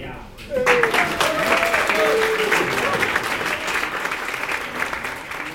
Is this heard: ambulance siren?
no